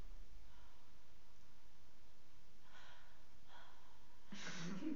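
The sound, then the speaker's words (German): A voice imitates heavy breathing: two soft, airy breaths followed by a louder, harsher exhale, with no talking. “so hast du geatmet?”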